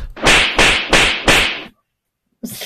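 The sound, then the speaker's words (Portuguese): Four loud, sharp whip cracks snap in quick, even succession, each with a brief hissing tail, then a pause before a fifth crack cuts in at the end. “É, é chicote para baixo.”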